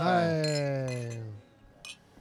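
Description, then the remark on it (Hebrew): A couple of light, bright glass clinks ring out as beer glasses are toasted, one over a long, drawn-out falling voice at the start and another crisp clink near the end. “מגיע פה איזה מלאך עם בירה, אני רק רוצה להגיד תודה רבה.”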